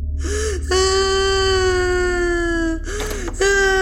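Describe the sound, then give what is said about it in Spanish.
A boy cries in a loud, drawn-out wail lasting a couple of seconds, catches a quick sobbing breath, then launches into another wail, heard in the background in a house. There is no talking. “Minutos más tarde, Javier entra a casa y escucha al fondo el llanto”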